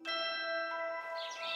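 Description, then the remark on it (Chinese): A steady, ringing bell-like tone holds for about a second, then gives way to a quick flurry of bright, high sparrow chirps at the end, sparrows outside a window in the early morning. No one speaks. “清晨，窗外的麻雀叽叽喳喳，正在发电报给敌人。”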